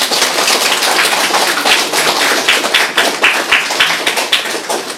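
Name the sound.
applause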